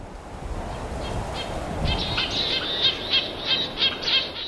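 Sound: flowing water stream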